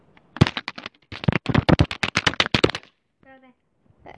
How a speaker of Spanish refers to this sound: como a mí me hace ASMR cuando juegan en Twitch los teclados así